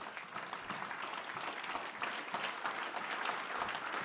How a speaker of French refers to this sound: Pouvons-nous déposer nos Bibles et acclamer le Seigneur un moment